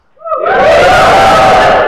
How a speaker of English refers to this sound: Now, hand up. Actually, give us a little cheer if you study engineering or science.